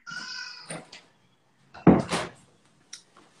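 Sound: door being closed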